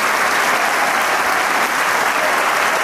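Sustained audience applause in a theatre for a young maestro's virtuoso performance with the Camerata musicians, a dense, steady wash of many hands clapping at once, loud and even throughout with no voices standing out.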